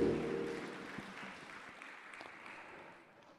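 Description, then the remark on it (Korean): An audience gives God glory with big applause after a worship song, a dense wash of many hands that stays steady and then gradually tapers off over a few seconds, with a low hum beneath at the start. “우리를 사랑하신 하나님께 우리 큰 박수로 영광 올려드리겠습니다.”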